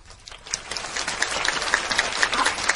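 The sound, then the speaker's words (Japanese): An audience at the opening-day stage greeting for the film Snow Prince: Forbidden Love Melody claps steadily: a dense, crackling wash of many hands that swells slightly and keeps going without a break, with no voices over it. “と、今、スタンバイをなさっている監督はじめキャストの皆様、ね、今の拍手をとても喜んでいらっしゃると思います。”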